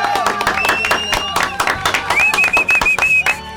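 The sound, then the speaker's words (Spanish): A burst of loud, dense applause from a crowd during a radio program, many hands clapping rapidly with cheering voices and a high, sustained whistle-like tone cutting through partway. “Un aplauso.”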